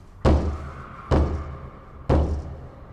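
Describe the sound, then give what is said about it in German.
Three slow, evenly spaced knocks by hand on a heavy wooden door, each a deep, solid thud with a short ringing decay, fairly loud with no voices. “Er hob die Hand und klopfte.”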